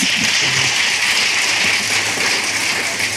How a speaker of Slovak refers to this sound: Myslím, že můžeme zatleskat, můžeme poděkovat.